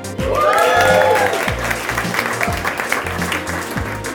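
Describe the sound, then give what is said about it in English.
A crowd at a FinTech Insider live event in a WeWork space bursts into sustained applause with scattered cheers and whoops, loud and steady for several seconds, with a rhythmic low thumping underneath like music playing. “Thank you to this audience. Give yourselves a cheer.”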